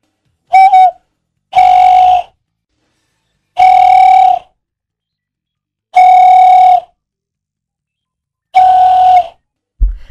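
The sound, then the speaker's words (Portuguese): A person makes a loud, repeated whistled call, the call they used to summon their own dog: five steady, buzzy, high-pitched tones, each under a second, separated by short evenly spaced pauses, with no talking. “Esse aqui é o que eu chamava meu cachorro.”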